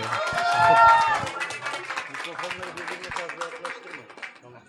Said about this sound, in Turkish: Bir alkış alalım.